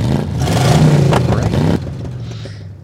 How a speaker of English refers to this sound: when you are in the GR BEV, you can actually hear the engine noises, even if you can't smell gasoline. Actually, hear the engine noises, even if you can't smell gasoline. Hear the noises? Yeah, they're going to have an engine noisemaker.